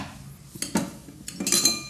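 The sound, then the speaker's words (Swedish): Metal objects clink and rattle as someone rummages through a drawer of utensils looking for a bottle opener, two bursts of jangling with a short pause between them. “Ja, nu har jag hittat öppnaren.”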